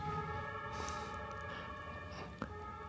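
Sirens from ambulances and police vehicles wail, steady and moderately loud, then fade away over a rumbling street background, with a sharp brief knock near the end.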